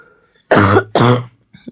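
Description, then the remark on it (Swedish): Two loud, harsh coughs in quick succession, followed by a faint breath or throat sound. No speech. “Och hostar ut en lunga ah, här.”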